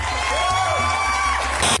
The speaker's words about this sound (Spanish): Aplausos, aplausos.